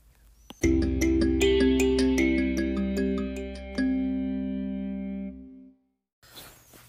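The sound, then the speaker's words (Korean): A short burst of instrumental accompaniment music played during a test broadcast: bright, electronic-sounding sustained chords with quick note attacks, loud and steady for about five seconds before cutting off into silence and faint background noise. “방금 나온 음악은 반주 음악이었으며 잠시 후 끝 음악이 나오겠습니다.”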